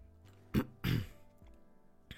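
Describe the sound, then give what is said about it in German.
Two short, harsh throat-clearing bursts, the second slightly longer, followed by quiet breathing and a faint click near the end. No talking. “Ja, es tut mir leid, wenn ich da ab und zu huste oder komische Geräusche mache.”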